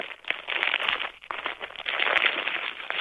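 bubble wrap being popped

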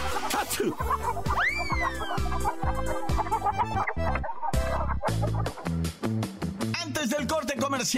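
hen clucking

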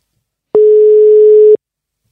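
telephone ringing tone

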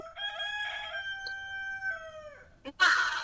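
rooster crowing

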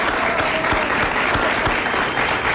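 applause

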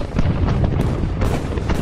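artillery bombardment explosions

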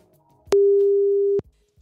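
telephone dialing tone

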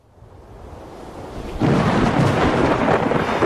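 thunderstorm with rumbling thunder

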